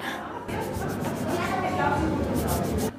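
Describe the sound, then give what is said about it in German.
A hand strokes the head of a serving robot, making a steady rubbing and brushing sound with soft repeated swipes over about three seconds. “Und man kann ja noch viel mehr machen, also man kann den Engel auch streicheln.”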